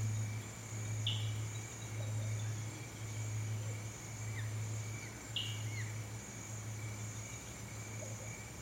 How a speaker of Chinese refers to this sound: 远处有些小鸟正在鸣叫。